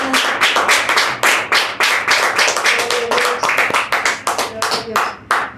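An audience at a Christian church service claps together in a steady burst of applause offered to God, loud, with sharp overlapping hand claps filling the whole stretch and a few voices faintly mixed in.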